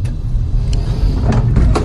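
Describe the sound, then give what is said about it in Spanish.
A steady low rumble of a car, fairly loud, with a few brief clicks and knocks over it, like doors or body panels moving, and no voices. “Mira cómo pillan el coche, aquí sí que lo pillan.”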